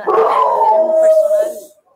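A dog lets out a single drawn-out howl lasting under two seconds, starting rough and settling into a steady sustained tone before fading away, fairly loud.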